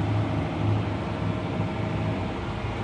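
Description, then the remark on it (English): A fishing boat's Caterpillar V8 diesel engine runs steadily, a loud, continuous low rumble with a throbbing drone and broad mechanical noise, unchanging, with no voices. “A Caterpillar V8.”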